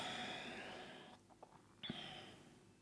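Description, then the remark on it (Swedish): A soft, breathy exhale during a guided meditation trails off over about a second, followed by a brief quiet pause with faint small sounds before a hiss of air returns. Gentle, with no talking. “Och andas ut.”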